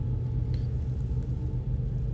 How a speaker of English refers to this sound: Excuse the background. I'm doing this podcast in the car again.